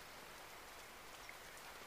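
Steady rain falls around a treehouse in a dense, even hiss, with soft scattered drops pattering on a surface throughout. No voices, just the continuous wash of rainfall.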